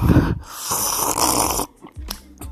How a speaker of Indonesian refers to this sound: diseruput kopi robusta Lampung